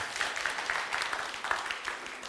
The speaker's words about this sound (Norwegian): Vi klapper for de i Indre Østfold som jobber der.